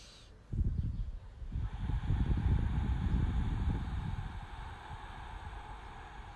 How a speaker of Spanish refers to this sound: Cierro mis ojos y hago tres respiraciones profundas, suaves con amor.